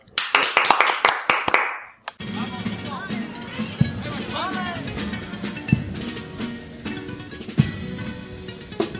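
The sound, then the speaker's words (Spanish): A quick run of about nine sharp, loud hand claps lasts roughly two seconds, then gives way to a busy backdrop of crowd chatter and babble. “Un aplauso.”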